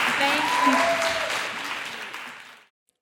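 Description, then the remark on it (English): Steady audience applause, a dense crackle of many hands clapping, holds for a couple of seconds with faint vocal cheers mixed in, then cuts off abruptly into silence. “Yes, clap it up.”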